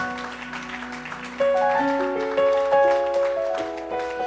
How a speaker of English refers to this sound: Now clap those hands in this building. Clap those hands.